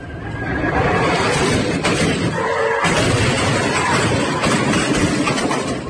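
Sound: gunfire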